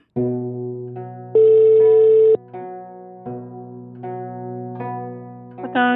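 A continuous electronic telephone ringing tone of an outgoing call to the police fills the line, holding steady buzzy pitches that shift in several steps, one brief higher and louder stretch, with no voices and no pauses between.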